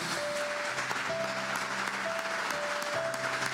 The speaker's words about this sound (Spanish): Dar un aplauso a la palabra de Dios.